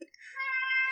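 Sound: cat meowing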